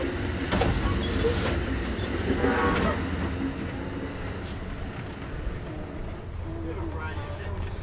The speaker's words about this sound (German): Ständig hat man das Getute von dem Zug, also von der Lok. Ähm, also man hat immer so, eine, so ein Grundgeräusch.